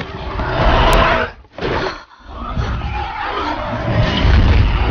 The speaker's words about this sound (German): Als die beiden Saurier sich gegenüberstehen, brüllen sie sich kampfeshungrig an. Dann gehen sie aufeinander los.